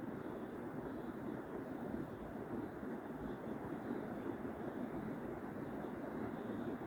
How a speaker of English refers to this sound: Then truly you can enjoy this rain, this moment.